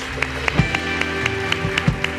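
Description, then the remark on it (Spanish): An audience at a Christian worship service claps for Jesus in steady unison, sharp regular beats about four per second, over a sustained keyboard-like musical drone. “Bendito Dios, dale un fuerte aplauso a Jesús.”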